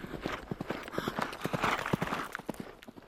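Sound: horse hooves clip-clopping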